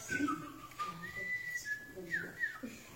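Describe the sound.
A person whistles a bird call imitation meant to say "how are you today" to birds: sustained, high, clear tones with quick upward and downward slides, broken into a few phrases over about three seconds, with soft voice-like sounds underneath.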